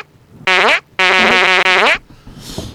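Three loud, buzzy farts in quick succession, the middle one long and rippling, with no talking; faint rustling noise trails off afterward.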